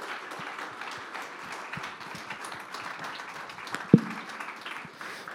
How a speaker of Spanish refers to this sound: De ese aplauso de alabanza al Señor en esta hora. Aleluya.